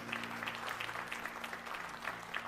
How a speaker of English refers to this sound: Wow, thank you guys. I enjoyed that. Give them a hand clap. That was a good song. Thank y'all.